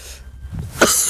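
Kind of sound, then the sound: human body sound, coughing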